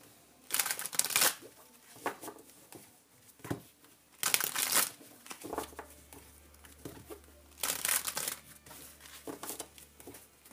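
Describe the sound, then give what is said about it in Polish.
A deck of tarot cards being shuffled in several bursts of crisp riffling and papery flicking, with short pauses between each round and no talking. “Teraz potasuję karty mm, Talia Draconis.”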